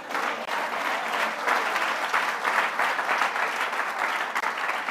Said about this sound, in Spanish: Cuando da un aplauso al Señor.